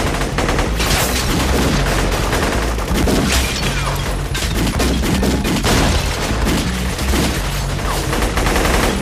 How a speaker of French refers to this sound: Dans cette scène, rien n'a été fait en post-prod, tout est réel. Que ça soit le bon millier de coups de feu, à la louche ou à papinailler, l'hélicoptère avec ses mitraillettes, ou encore les explosions.